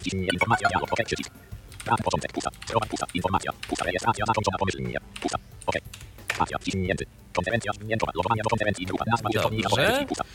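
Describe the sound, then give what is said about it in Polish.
Computer keyboard typing as someone enters a login and password, a quick run of light key clicks sitting under continuous talking, the tapping partly buried beneath the voice. “Wpisuję swój, swój login, wpisuję swoje hasło.”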